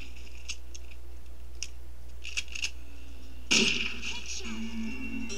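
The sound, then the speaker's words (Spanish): A game-style weapon sound effect played from an app's trial mode: a few faint mechanical clicks, then one loud, sharp blast that rings out and fades over a low steady hum. “Como pueden ver, cambia el sonido del arma, obviamente.”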